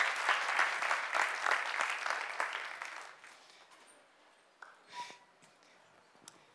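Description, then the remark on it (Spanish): An audience breaks into dense, steady applause for God for about three seconds, then the clapping thins out and fades to a few scattered, isolated claps and small rustles. “Denle un aplauso a Dios y tome asiento, por favor.”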